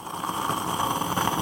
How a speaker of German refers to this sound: Das Geräusch, das ihr gerade hört, das ist mein Espresso-Kocher, wenn der Kaffee kocht. Ein wunderbares Geräusch. Ich liebe meinen Espresso-Kocher.